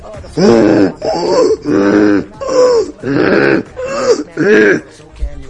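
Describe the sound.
A person imitates a moose call with six drawn-out, groaning vocal bellows in a steady rhythm, each lasting about half a second with short pauses, loud.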